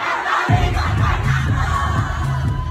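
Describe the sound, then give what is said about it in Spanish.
A huge crowd of fans in a full stadium chants loudly in unison "Puerto Rico está bien cabrón", a dense roar of voices with a steady rhythmic pulse that swells in after a brief moment and carries on throughout. “sus fans por todo el mundo gritan a Tohendel, Puerto Rico está bien cabrón, es como si todo el mundo gritara sobre la brega.”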